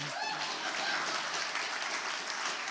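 audience clapping

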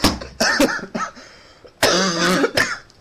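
people coughing

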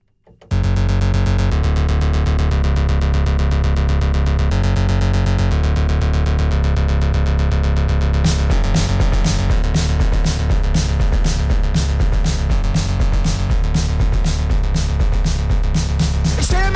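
music track playing

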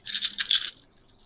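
dice being rolled

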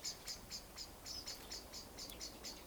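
birds chirping outdoors

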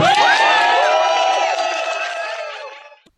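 rally crowd cheering

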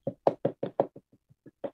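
knocking on a door

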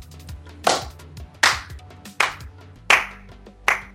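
slow hand clapping

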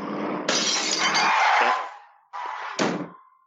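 glass breaking

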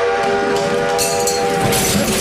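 train whistle sound effect

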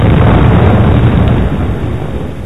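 explosion sound effect

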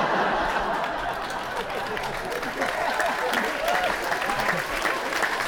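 studio audience applause

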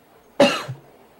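coughing

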